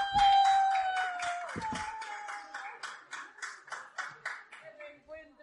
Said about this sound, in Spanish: un aplauso fuerte, por favor, os pido.